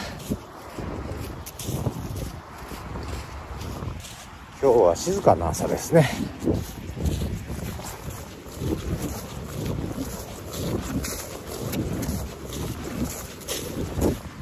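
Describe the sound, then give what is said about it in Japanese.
A steady, even rush of flowing water from the Toyohira River fills the background throughout, recorded on its lightly snow-covered riverbank at about 7 in the morning, mixed with some wind buffeting the microphone, while a person out walking a dog speaks briefly over it. “今日も元気にトコトコトコトコどんどこどんどこ歩いてきます川の音聞こえるかな”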